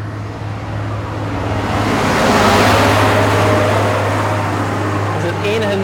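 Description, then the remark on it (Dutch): A tractor drives past in the Flemish Ardennes: a steady low engine drone under a broad rushing rumble that swells to a peak midway through, then eases off slightly toward the end. “nadeel aan de Vlaamse Ardennen, tractoren.”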